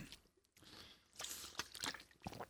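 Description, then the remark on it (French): A quick, quiet sip of water: a few soft wet slurping and swallowing sounds in short bursts, with no talking. “je me prends une petite gorgée d'eau, puis je poursuis ça après.”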